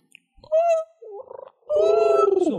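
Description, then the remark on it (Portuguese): A person vocally imitates an owl with hooting, pigeon-like cooing calls: a short tonal coo, a warbling gurgle, then a longer sustained coo that slides downward, fairly loud. “Eu acho que a coruja é tipo isso, um pombo com reverb, assim.”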